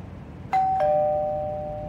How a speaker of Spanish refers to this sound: Ahí está. ya sonó el timbre exactamente dos minutos antes de las once. Ni hablar. Le tengo que abrir.